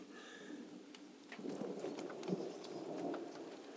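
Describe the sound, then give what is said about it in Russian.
Steady rain pours down with a low rumble of thunder rolling underneath, the storm swelling slightly louder midway and staying constant with no voices. “так, пока в это грозовое.”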